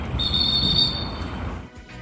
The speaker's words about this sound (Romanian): O să și spunem, era un uh, fluierat uh, de polițist ăsta.